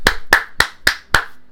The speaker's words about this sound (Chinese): 好，先跟大家讲一下，这一集上架的时候就是呢第五十集了。好，给老夫鼓鼓掌一下。